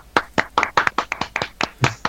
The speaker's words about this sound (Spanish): Mi más sincera enhorabuena y un grandísimo aplauso para todos los impulsores del proyecto Ser Más.